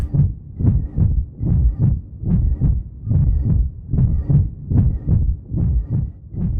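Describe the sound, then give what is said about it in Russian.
A short clip of a whistling draft, cut from a recording found online, repeats in a tight loop, swelling and fading in steady pulses about twice a second, with a low, rumbling body and faint airy tones on top, no voices. “Я вырезал маленький кусочек свиста сквозняка, который нашел в интернете, и пробую сделать из него цикл.”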